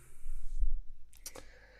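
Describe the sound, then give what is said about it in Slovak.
A few sharp, plastic-sounding, Lego-like keyboard clacks in quick succession, fairly crisp, following a moment of low rumbling; no one speaks. “fakt vysoká, ale s, s touto vecou sa na tom píše úplne ako na obláčiku. Akože má to taký Lego, Lego zvuk, ale je to paráda.”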